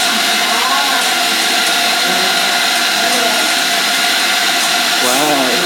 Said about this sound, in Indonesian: blendernya berisik sekali